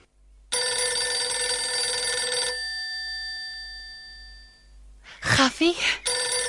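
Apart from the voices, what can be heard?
telephone ringing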